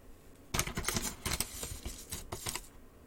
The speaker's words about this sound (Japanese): 今日はこんな安い、安いやつをいきます。安いやつの粉を、このね、ところに、この、何、サイフォンの上の部分ですね。上の部分にこの粉を入れますね。